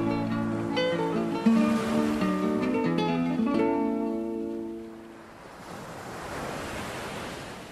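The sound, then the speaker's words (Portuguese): Sustained musical tones fade out, giving way to the steady rushing wash of sea waves breaking on a shore, a continuous roar that swells gently toward the end. “O mar separa-nos, o mar liga-nos.”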